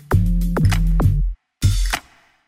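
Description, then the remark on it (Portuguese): A loudspeaker car selling goods passes along the street, blaring a loud, distorted amplified jingle of three punchy repeated tones, then a short pause and one more blast, without other talk. “Carro de som vendendo coisas passando na rua.”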